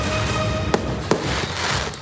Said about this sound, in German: Willkommen aus Culos am Fuße des Grand Colombier am äh, französischen Nationalfeiertag. Ihr hört das Feuerwerk, das habe ich gestern Abend in meinem Handy aufgenommen.